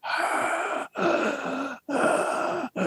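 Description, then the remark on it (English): A voice imitates the heavy, raspy breathing of an obscene phone call: three long, noisy breaths in steady succession with brief gaps between them, fairly loud, with no words spoken. “Okay, so if you don't know, and I, I don't know whether this is a thing anymore, but certainly in the 70s, an obscene phone call was was a guy breathing like this.”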